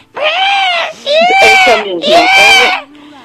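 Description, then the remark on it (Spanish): A person's voice imitates the crying scream a pet makes at 7 in the morning to wake its owner: three loud, drawn-out wailing cries in quick succession, strained, each rising and falling in pitch. “Ella llora a las 7 de la mañana para despertarme únicamente.”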